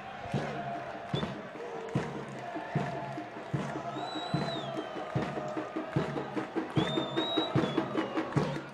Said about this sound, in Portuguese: Vamos ver a torcida.